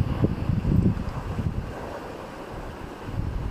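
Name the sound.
wind and sea waves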